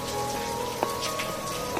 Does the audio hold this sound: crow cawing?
no